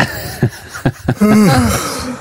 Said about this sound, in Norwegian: La meg nå få gjespe selv om det sitter folk her, da.